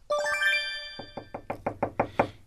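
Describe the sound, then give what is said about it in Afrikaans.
A short ringing tone fades out, then about eight quick, evenly spaced knocks on a door follow, growing louder as they go, with no one speaking. “Kyk asseblief fees by die deur.”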